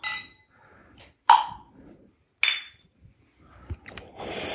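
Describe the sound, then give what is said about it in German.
Glasses of red Zweigelt wine clink together in a toast, two bright, sharp chimes a second apart with ringing tails, followed by soft rustling and a quieter clatter. “Prost, Philipp. Armin, Prost.”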